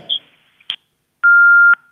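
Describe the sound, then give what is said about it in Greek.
A phone call-in line from a caller in Veria drops: a brief burst of noise and a short click, then a steady electronic phone tone holds for about half a second, the kind heard when a call cuts off. “Έπεσε η γραμμή.”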